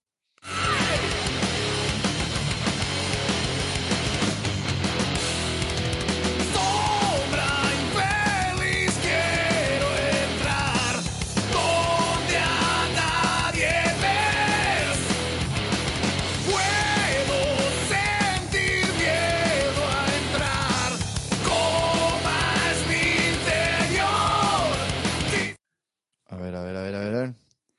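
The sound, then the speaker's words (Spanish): A loud rock song plays steadily with a sung lead vocal over driving drums and full band, then cuts out abruptly near the end before a brief burst resumes. “Mira, tengo para destacar la voz y la batería, hasta lo, que voy escuchando.”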